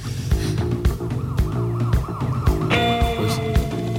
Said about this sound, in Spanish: pues, las sirenas están en la canción, ¿eh? que hoy ha sido un día de sirenas, en Sevilla.